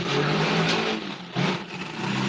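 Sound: motorcycle passing by outside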